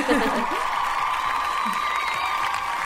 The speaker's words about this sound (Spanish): Ahí están todos los aplausos.